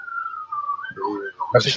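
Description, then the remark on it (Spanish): A thin, steady whistle from a water pipe holds one pitch for nearly a second, then fades as people start talking over it. “No más que era una cañería.”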